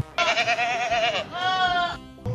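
A goat bleats twice in quick succession, each call loud and wavering with a strong harmonic tone, the first long and quivering, the second slightly shorter and steadier.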